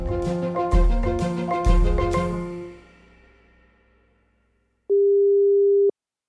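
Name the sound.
telephone ringing tone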